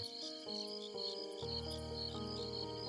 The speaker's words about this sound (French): Dans un grand arbre appelé sycomore, des cigales chantaient leurs chansons monotone.